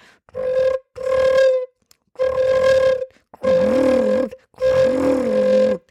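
Five sustained flute notes on roughly the same mid pitch, each with a buzzing, rattling flutter-tongue texture; the last two carry an extra low, wavering growl beneath the tone. No talking.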